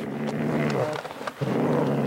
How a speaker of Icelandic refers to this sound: Í dag er þessi sem hér urrar, raðmorðingin og skrimstið Tómas Kvikk frjáls maður, síknaður af öllum morðunum átta sem hann var dæmdur fyrir á sínum tíma